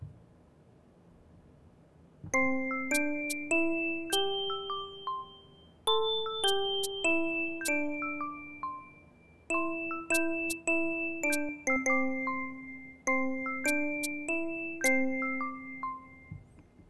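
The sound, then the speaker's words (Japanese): A short self-composed keyboard melody phrase with bright, bell-like tones layered from about three sounds, played in repeating phrases of clear, evenly spaced notes that ring and decay, alone without any talking. “ちょっとフレーズをね、まあ練習してたんですけど、ちょっと作ったフレーズがあって、ちょっと聞いてもらっていいですか”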